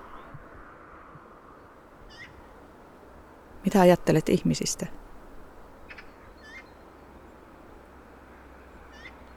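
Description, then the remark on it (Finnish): Two or three magpies mew and chatter in a short harsh burst, loud, among big old spruce trees, with a few faint calls scattered before and after over a low steady background. A person speaks briefly. “pari kolme harakkaa naukuu ja säksättää.”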